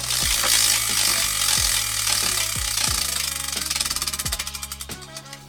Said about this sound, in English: So here we go, spinning the wheel.